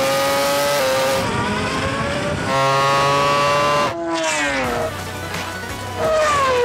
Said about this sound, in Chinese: 最后一回合的比赛，第五只猛兽电动赛车加入战局，但是摩托车的优势依然存在。全球摩托 GP 车手佩卓莎依然冲第一。